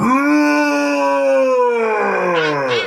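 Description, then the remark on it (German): A person in a bear costume imitates a bear's roar with one loud, drawn-out vocal cry, steady in pitch, sagging slightly near the end, lasting about three seconds with no talking. “Das Brüllen kannst du lassen, ja?”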